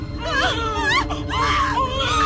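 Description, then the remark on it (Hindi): A loud, high-pitched scream bursts out late at night, wavering and strained like an anguished wail, lasting about two seconds over a low rumbling background with no talking. “इतनी रात को इतनी आवाज क्यों हो रही है और ये चिल्लाया कौन है”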